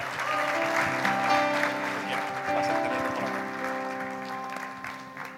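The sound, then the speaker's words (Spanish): A church audience applauds for the Lord, steadily for about five seconds, a dense, continuous wash of clapping with sustained musical tones, likely keyboard chords, held underneath. “Un aplauso al Señor.”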